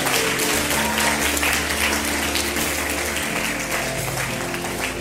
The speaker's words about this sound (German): An der Stelle verabschieden wir Dresden mit einem tosenden Applaus.